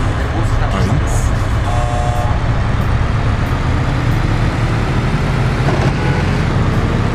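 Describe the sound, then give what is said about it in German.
Loud, steady engine roar with a deep rumble that holds for about seven seconds as race cars, including a Blackbird race car, start their engines after a countdown and drive, with indistinct voices mixed underneath. “Du bist Spieler. 5 startet die Motoren.”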